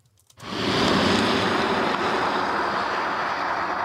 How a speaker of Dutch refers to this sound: Ik hoor een stofzuiger. Ja, dit oh, sorry, dit was de rijimpressie met de Dyson, Dyson V10.